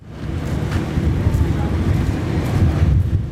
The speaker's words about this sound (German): Der Wind peitscht über den Südatlantik und weiter über die karge Steppe Patagoniens. Hier im äußersten Süden Chiles können die Böen gern mal 90 Stundenkilometer erreichen.